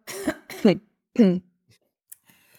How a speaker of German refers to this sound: Ich muss mich ganz kurz räuspern.